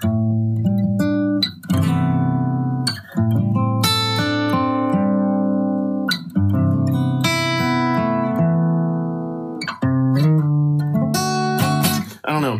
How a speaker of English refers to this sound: See, but um, I've been trying to find cool things like that. Just open voicing chords, because then whenever you can slip it in, because now it just sounds magical.